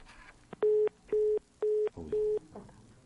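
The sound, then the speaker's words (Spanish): Telephone line tones sound during an incoming call: four loud, steady mid-pitched beeps of equal length, evenly spaced about half a second apart, with faint background noise between them. “Vamos a una llamada telefónica.”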